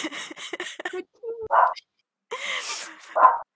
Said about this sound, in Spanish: ¡Ay, qué miedo! Hasta el perro empezó a ladrar.